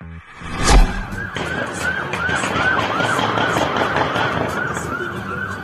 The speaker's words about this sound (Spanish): Este martes hubo una balacera en Celaya, es la que están escuchando. Policías, presuntos sicarios del cártel Jalisco Nueva Generación se enfrentaron.